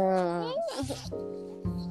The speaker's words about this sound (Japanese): イヤホンが欲しくて泣いてるで イヤホン好きだもん、ね、イヤホンが欲しい